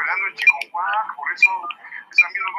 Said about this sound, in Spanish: Deja de estar usando el teléfono, vas a dañar los equipos a bordo, cabrón. Va a ser una interferencia. Mira, ya empezó la interferencia, güey. Mira.